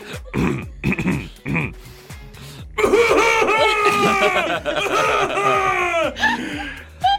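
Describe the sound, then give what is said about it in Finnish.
A voice imitates the throat-clearing sound heard during a flight just before a cough began, with several short, gruff, rasping bursts, followed by a longer stretch of loud, voiced laughter-like vocalizing. “tässä vaiheessa oltiin lennetty jo tunti 15 minuuttia ja mä tunsin sen äänen, että kohta se yskä alkaa.”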